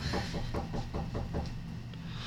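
A quick run of about seven knocks on a door, evenly spaced and fairly muffled, over a steady low background hum.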